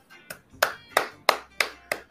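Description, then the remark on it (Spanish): Six sharp hand claps from a single person in a steady, quick rhythm, each a bright percussive snap with a brief ring, with no talking over them. “Se le aplaude el, esfuerzo que han hecho el gobierno y el, el departamento de salud.”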